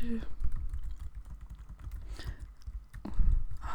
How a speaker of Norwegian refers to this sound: mens jeg lar fingrene danse på tastaturet.